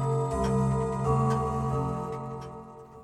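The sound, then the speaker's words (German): A grandfather clock ticks with a few distinct, slightly uneven clicks over a steady, resonant tonal drone, moderately loud with no voices. “da ist ein Mann in der Standruhe.”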